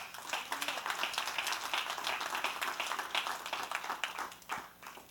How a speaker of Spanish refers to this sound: Den un aplauso al Señor.